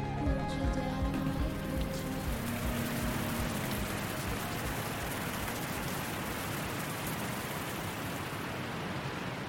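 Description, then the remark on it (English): Heavy storm rain, in the worst storm in 20 years, pours down on a campsite on a low-lying gravel bar in a dense, steady roar that holds loud and even throughout, with a faint tonal hum fading out during the first couple of seconds. No one speaks. “The water is rising, the wind is howling. It's the worst storm in 20 years, and a group of gimps and wheelies are right smack in the middle of it.”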